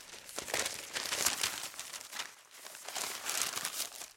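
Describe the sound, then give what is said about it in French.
A small paper leaflet folded in twelve is unfolded, giving a steady run of crisp crinkling and rustling bursts over a few seconds with no voices. “Alors tu te résignes à lire le petit papier plié en douze.”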